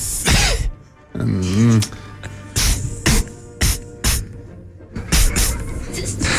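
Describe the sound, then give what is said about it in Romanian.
Someone voices a snake's cough: a run of sharp, breathy hisses with a brief throaty groan near the start, the bursts coming in uneven spurts for several seconds. “Auzi, dar cum tușește șarpele?”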